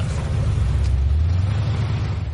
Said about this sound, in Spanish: El coche se va.